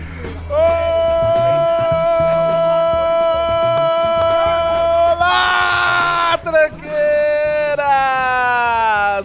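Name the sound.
person screaming loudly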